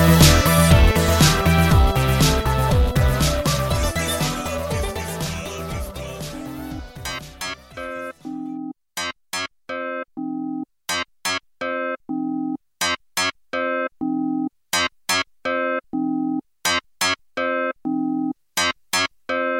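An electronic dance single released in 2003 opens with a dense, loud wash of layered synths, then drops into sharp, repeated staccato synth stabs in a steady rhythm with short silences between, no vocals.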